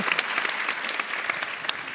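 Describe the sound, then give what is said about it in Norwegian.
Steady applause for the radio programme Politisk kvarter, celebrating its 50th anniversary in Oslo: a dense wash of many hands clapping at a fairly even loudness throughout, with a few sharper individual claps standing out and no voices. “ja, Og klapp til dem.”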